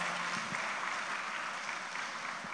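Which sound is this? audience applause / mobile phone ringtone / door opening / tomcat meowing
audience applause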